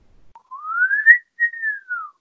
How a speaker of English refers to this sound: The whistle, do the whistle, do the whistle.